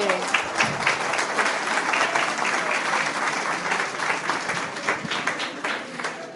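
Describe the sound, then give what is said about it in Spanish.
Audience applause fills the whole stretch, a dense, steady patter of many hands clapping at even loudness, with a faint murmur of voices underneath. “Un aplauso a la señora. Un aplauso, sí.”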